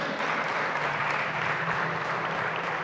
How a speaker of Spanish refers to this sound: Dale un aplauso fuerte Señor.